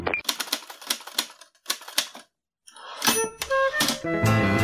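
Typewriter keys clack in quick, uneven bursts, then pause briefly before a busier stretch of typing returns, joined by sustained ringing tones.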